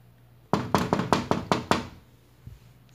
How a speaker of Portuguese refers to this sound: Estava quase pegando no sono quando ouviu que batiam na janela do quarto.